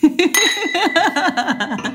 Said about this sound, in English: Should we clink our glasses? Mm-hmm. Clink.